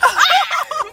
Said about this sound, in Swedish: Nej men kolla! Det är en hund! Nej men gud!